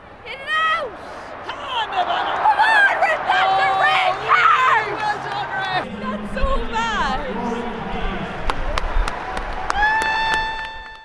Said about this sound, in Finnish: Neljännesfinaalin ottelussa Corkissa upoudella stadionilla 25 000 henkeä käsittävä innostunut yleisö kannustaa raivokkaasti joukkueitaan voittoa.